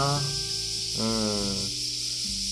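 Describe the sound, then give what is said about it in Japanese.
A steady, high-pitched drone of cicadas buzzes continuously in the background on a hot July day, with a lower sustained voice-like tone shifting pitch underneath. “まあ、常にこう、セミの音がワンワンワンワンバックで流れてて、まあ、それもええか。”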